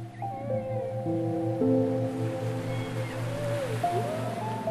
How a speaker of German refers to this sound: Lauschst dem Gesang der Wale.